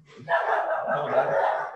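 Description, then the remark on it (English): Dogs bark and yap as the mail arrives, in a dense, nearly continuous loud burst, with the voices overlapping into one sustained noisy stretch after a brief quiet start. “My dogs sit there.”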